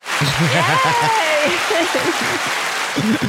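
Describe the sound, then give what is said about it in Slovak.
Steady audience applause as the host's mother is introduced fills the whole stretch, a dense, hissing wash of clapping, while voices call out and talk loudly over it. “Tak, dámy a páni, je tu moja mama. Veľký potlesk.”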